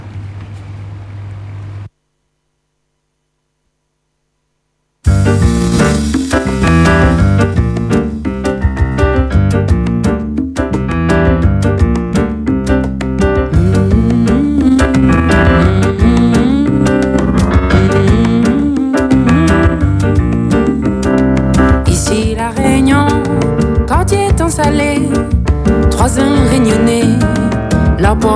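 A world music song with a female singer starts after a short low hum and a few seconds of silence, then plays loud and full with a steady rhythmic pulse.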